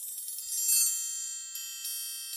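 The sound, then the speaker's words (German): A triangle struck with very thin beaters: a flurry of quick, delicate taps, then a few spaced strikes, each leaving a bright, high, shimmering metallic ring. Soft, with no voices. “Mit ganz dünnen Schlägen.”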